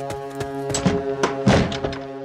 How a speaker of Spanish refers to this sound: Corrí a la cabaña, cerrando la puerta de golpe.